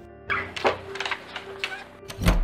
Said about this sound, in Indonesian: Setelah dia berada di luar ruangan, dia lalu mengunci pintu ruang kerja Profesor Juniadi itu.